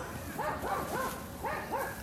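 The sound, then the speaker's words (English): Several dogs bark repeatedly in quick, overlapping bursts outdoors at half past 7 p.m. while someone walks a dog, with people yelling and playing football nearby, against a steady background hum. “It's half past 7 p.m and I don't know if you can hear all this sound. There are dogs barking, there are people yelling, playing football,”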